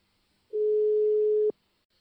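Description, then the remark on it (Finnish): A single steady telephone ringback tone of a call being placed to someone in Manchester sounds for about a second, a flat, clean mid-pitched hum that starts and stops abruptly, with silence before and after and no one speaking. “Mutta tota, palas Manchesteriin, niin soitetaan, soitetaan hänelle ja kysytään, että miltä elämä näyttää niin kuin ihan – juuri nyt paikan päällä suomalaisen silmin?”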